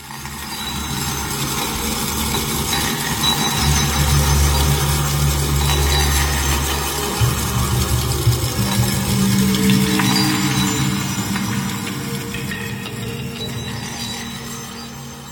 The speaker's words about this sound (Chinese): 在颂钵中放入两个塑胶小球，让它们互相撞击，与颂钵相互共振。